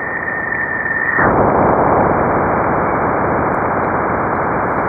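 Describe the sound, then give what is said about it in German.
A sonified recording of the Juno spacecraft crossing Jupiter's bow shock as it enters Jupiter's magnetosphere: a steady rushing hiss with a thin high whistle abruptly swells after about a second into a louder, denser roar that continues evenly, with no voices. “Bowshock heißt das Ding, was äh, vergleichbar wäre mit ähm, dem Durchbrechen der Schallmauer auf der Erde.”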